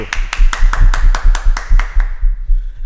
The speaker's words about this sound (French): Bienvenue sur Propulsion, Jérôme D'Ambrosio. On, on applaudit.